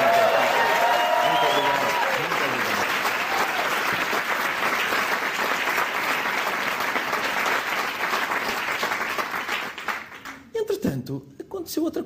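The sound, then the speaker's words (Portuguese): An audience applauds performers after a poem with a loud, dense, steady wash of clapping that fades out near the end, where a voice begins speaking. Brief voice tones are audible at the start. “Senhoras e senhores, uma salva de palmas para vocês.”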